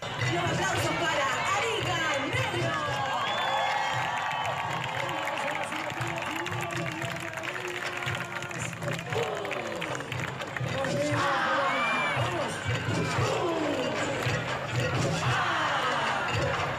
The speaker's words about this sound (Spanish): Pasada la medianoche, descubre una nueva agrupación, Arica Negro Recuerdo de la Chimba. Es recibida con numerosos aplausos y señales de orgullo.